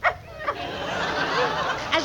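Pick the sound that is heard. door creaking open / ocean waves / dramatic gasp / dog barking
dog barking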